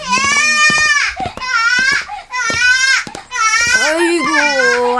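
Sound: baby crying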